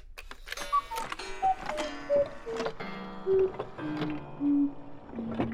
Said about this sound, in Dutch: En vooral op het moment dat hierna nog die vertraagde koekoeksklok komt. En dan heb je een soort gevoel van afsluiting.